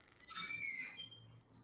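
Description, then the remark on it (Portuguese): A door creaks open somewhere, with a brief, high-pitched squeaky hinge whine lasting under a second, fairly quiet against a low background hum, with no one talking. “Ah, uma porta abriu em algum lugar aí.”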